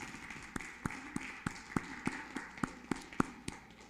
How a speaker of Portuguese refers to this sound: Dê um aplauso ao Senhor nesta noite.